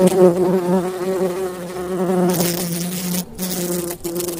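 A bee buzzes in a steady, droning hum that wavers slightly in pitch, lasting throughout with no pauses, while a faint rustling hiss joins in toward the end.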